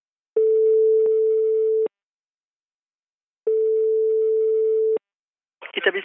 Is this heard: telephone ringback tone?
yes